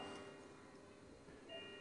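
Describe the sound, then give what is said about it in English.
Faint, steady ticking of a wall clock sits under a low background hiss, with soft regular clicks and no voices. “it's my twenty dollar clock. Can you hear it?”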